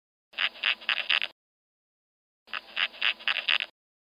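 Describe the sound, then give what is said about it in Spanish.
Larva of a typical bumblebee stridulating with its mandibles: two short bursts of rapid, scratchy rasping pulses, each about a second long with a pause between, fairly faint, with no other sounds. “Y este es el sonido de un abejorro típico de la larva, ¿no?”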